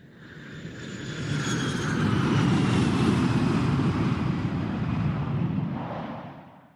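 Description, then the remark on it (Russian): An airplane flying to the city of Ivanovo, Russia, drones past with a broad, steady engine roar that swells to a peak midway and slowly fades, with faint high whining tones riding above the rumble. No voices. “Мы, значит, э, едем в город Иваново. Летим”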